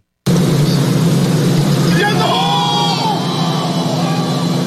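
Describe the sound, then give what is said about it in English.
A golf gallery crowd at a tournament in Lake Tahoe in mid-July erupts in a loud, sustained roar as Steph Curry holes an eagle putt on the 18th on Sunday to win, with individual whoops and yells rising above the cheering partway through. The roar starts abruptly and stays strong to the end. “Oh, it goes in. Like that sounds like the U.S. Open.”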